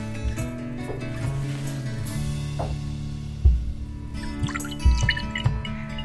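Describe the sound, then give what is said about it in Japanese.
Sake pours steadily into a glass for a toast, a continuous liquid trickle with a faint rising resonance and a couple of soft knocks partway through, with no talking. “はいですねいい音が、はい、あすごくいい香りまだ口の前に持ってきてないのに香りがすごくいいですねついただけで”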